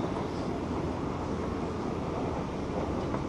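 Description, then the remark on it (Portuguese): A metro train runs between stations, from Brás towards Pedro II, a steady, dense rumble with constant low-frequency roar and hiss filling the whole stretch, no voices, fairly loud throughout. “Próxima estação, Pedro II. Desembarque pelo lado direito do trem.”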